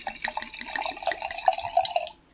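Wine pours into the first glasses, a steady burbling stream with quick glugs at the start that settles into a smooth trickle before stopping. No one speaks.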